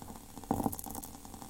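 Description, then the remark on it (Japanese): Water bubbling close to the microphone as it starts to boil, a steady low gurgling and popping with a brief louder burble partway through. “沸騰してきたかな”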